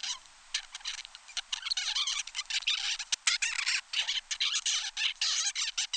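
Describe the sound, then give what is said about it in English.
A 35-day-old baby zebra finch babbles in a continuous run of soft, buzzy chirps and warbling notes, with brief pauses, a sharp click near the middle, and no voices. “This is a 35 day old baby zebra finch.”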